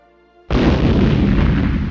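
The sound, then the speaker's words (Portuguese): A sudden, loud nuclear explosion bursts in after a quiet moment, then roars on as a dense, rumbling wall of noise with deep low-end weight, sustained to the end without fading. “caralho, aconteceu uma explosão nuclear, mano.”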